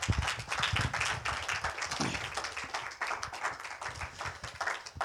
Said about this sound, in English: Let's give God a hand clap. Praise God.